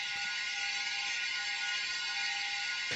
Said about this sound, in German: Ein Chor jodelt und wird begleitet von einem ganz speziellen, ich sage jetzt mal, Instrument. Das ist eine Schüssel, wo drin äh, eine Münze im Kreis rumläuft und die behaltet man so am Umkreisen.